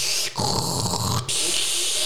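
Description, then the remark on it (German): A voice imitates a loud coffee machine starting up in a restaurant, a harsh steamy hiss broken by a short gurgling, throaty middle stretch before the hiss resumes. Continuous, with no words spoken. “Peinlich sind die Dinge, so gerade am Anfang, wenn du in einem Restaurant bist oder so und dann so die Kaffeemaschine anfängt zu laufen, sehr laut, wenn du gerade einen Gag erzählst und dann so im Hintergrund”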